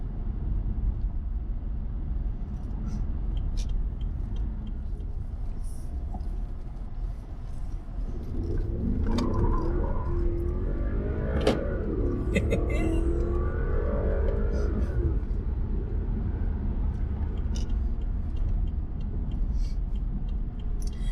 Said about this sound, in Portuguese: a aceleração desse V8 aqui é impressionante.